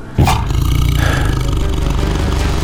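The badly wounded Champawat tigress growls as she leaps open-mouthed at Corbett, a deep, rumbling snarl that bursts in abruptly and holds loud and steady for over two seconds, gravelly and low-pitched, with no voices.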